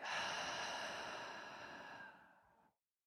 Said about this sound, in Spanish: Vamos a hacer una respiración profunda por la nariz. Inhala. Y exhala por tu boca y suelta el aire.